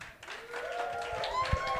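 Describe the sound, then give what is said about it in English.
A live audience breaks into applause to vote for Josh Creighton as the winner, a steady wash of clapping with a few cheering voices rising over it, lasting just under two seconds. “If you feel like Josh Creighton won that one, make a round of applause.”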